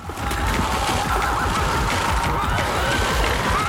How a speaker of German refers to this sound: Man hört es schon, das Pferd äh, nimmt immer mehr Gestalt an, man hört die Hufen, das Schnaufen.